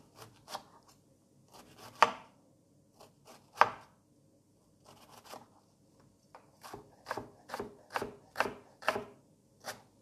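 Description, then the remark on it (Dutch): A knife chops on a cutting board, slicing food into thin strips by hand, starting with scattered strikes and settling into a quicker, steady rhythm of sharp taps near the end. Clear, with no talking. “Je zou dit ook eventueel met een keukenmachine kunnen doen, hè, met een eh, voor processor. Dus ik vind het wel net zo makkelijk met een mes.”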